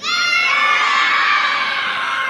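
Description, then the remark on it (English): A group of children shout and cheer together in response to a speaker asking if they are ready, a loud, high-pitched burst that holds steady for a couple of seconds, like an excited crowd of kids yelling at once. “Kids, are you ready? Come on, kids, I want to hear you.”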